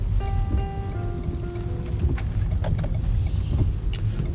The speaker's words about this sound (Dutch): Ah, wat een regen.